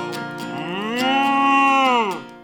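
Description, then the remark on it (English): A single long moo from Marvin, the friendly, curious cow, loud, rising in pitch, holding steady for about two seconds, then dropping away, with no talking around it. “It's Marvin, the friendly, curious cow.”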